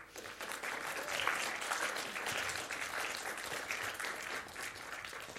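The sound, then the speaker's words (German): Sustained audience applause for two teams who served at the event, a steady, dense patter of many hands clapping at fairly even loudness for several seconds, with no voices standing out. “Gebt doch diesen beiden Teams einen riesen Applaus.”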